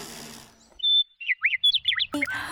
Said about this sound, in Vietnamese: Bữa nay chim có gì vui mà hót rít đau hết cái đầu hà